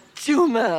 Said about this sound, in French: à tes souhaits, ma douce.